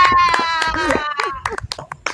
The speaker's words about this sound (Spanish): Un aplauso para la bicicleta.